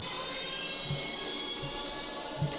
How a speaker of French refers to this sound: je tape un petit code avec un lieu. La voiture décolle.